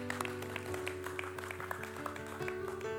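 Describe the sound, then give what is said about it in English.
An audience claps steadily for the Lord during a morning sermon, a dense wash of many hands, while sustained organ-like chords hum underneath throughout the few seconds. “So give the Lord a big hand clap for that this morning.”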